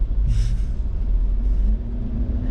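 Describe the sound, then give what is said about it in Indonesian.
Heavy, steady rumble of idling engines in slow traffic, with a brief hissing burst like a bus air brake near the start and a faint engine drone rising underneath. “macet banget nih”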